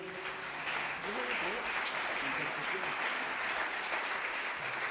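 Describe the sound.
Steady, dense studio audience applause on the program Intercepciones, a crackling wash of many hands clapping at once, with faint voices murmuring underneath.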